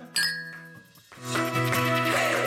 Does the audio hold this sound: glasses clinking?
yes